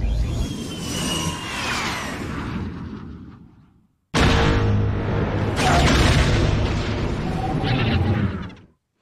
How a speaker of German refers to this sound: Seismischen Bomben sind einfach sehr befriedigend, wie ja. diese kurze Ruhe und dann ja. kurz weg ist.